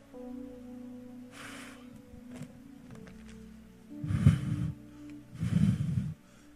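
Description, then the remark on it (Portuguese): A person blows air forcefully through the mouth twice to imitate wind, each a loud breathy whoosh lasting about a second, after a few softer breathy puffs. “A vida não é vento. Vento é isso aqui, ó.”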